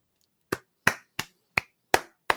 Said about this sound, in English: A round of applause.